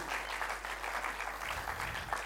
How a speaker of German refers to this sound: Danke vielmals, Band, euch. Vielleicht können wir wieder mal Applaus geben.